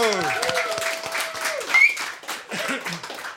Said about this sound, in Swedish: En applåd här